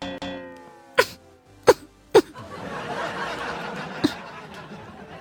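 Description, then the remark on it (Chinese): Three short, sharp throat-clearing bursts come in quick succession, followed by a softer fourth one a couple of seconds later, over a low steady background hiss. “此时你清了清嗓子”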